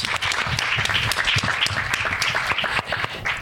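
A crowd applauds steadily, many hands clapping in a dense, crackling patter that holds a fairly even loudness throughout, with a few sharper individual claps standing out and a faint voice underneath.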